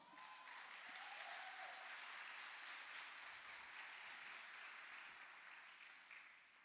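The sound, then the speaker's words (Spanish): An audience at a church service applauds for the Lord in sustained, dense clapping that holds steady for several seconds before easing slightly at the end, a broad, even roar of hands. “Cuéntale un aplauso al Señor.”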